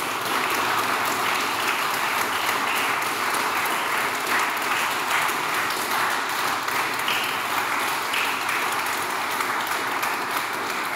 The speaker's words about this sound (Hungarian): Egy nagy tapsot szeretnénk kérni mindkét képviselőjelöltnek, és köszönöm szépen, hogy elfogadták a meghívásunkat, és itt voltak.